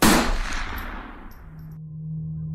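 A single loud gunshot cracks out at night, its blast rolling away in a long fading echo, leaving a low steady hum behind.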